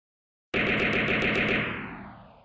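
A burst of fire from two submachine guns sprayed at a giant snake, the Earth Dragon King Snake: about eight rapid, evenly spaced shots over roughly one second, loud and sharp, then a fading rumbling tail. No voices.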